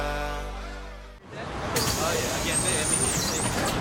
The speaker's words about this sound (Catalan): Això és un autobús, tu. Això és un autobús.